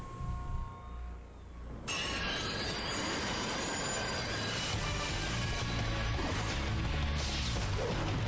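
A subway train rumbles loudly and steadily along the rails, with metallic wheel squeal and clatter layered over a deep, continuous roar after a quieter opening second.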